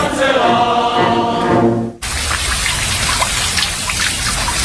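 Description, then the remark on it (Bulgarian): A hand shower with a water flow of 6 litres per minute sprays water in a steady, loud hiss with pattering droplets, starting abruptly after a brief sustained musical tone that cuts off. “Нашите ръчни душове освежават и тонизират за целия ден с економичен разход на вода от 6 литра в минута и функции дъжд, тропически дъжд, масаж, джет, шампанско цялата баня.”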